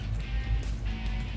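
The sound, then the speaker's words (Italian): After a stretch of low, steady line hiss, a loud, low-pitched telephone ringing tone cuts in abruptly right at the end, a single steady beep with no voices, as a call rings through to the presidency of the Veneto region at 8:30. “Squilla.”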